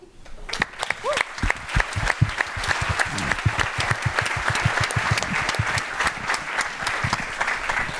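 An audience breaks into applause in tribute to the leader of an angel investor community, many hands clapping in a dense, steady patter that builds quickly and holds at an even, fairly loud level throughout.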